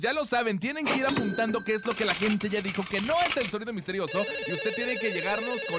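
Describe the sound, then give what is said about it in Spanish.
A telephone rings for the last couple of seconds, a bright, shrill, steady trill that starts partway through and continues to the end while people keep talking over it; an incoming call to a phone-in contest program, about to be answered. “Vamos a contestar la llamada.”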